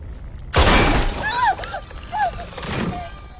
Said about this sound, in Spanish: Conway le dispara a una pierna.